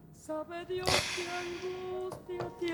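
A soft folk song plays, with a sustained sung or played melody of held notes, broken by a few sharp, whip-like cracks near the start and end.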